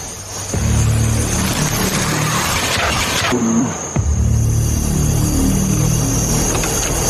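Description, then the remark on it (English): A truck driven by Bruce Pritchard and bringing in Vince McMahon rumbles loudly, its engine revving steadily as it rolls in, with a brief drop in the roar midway before it surges back up. No one speaks. “Here comes Vince McMahon. Bruce Pritchard's driving the truck.”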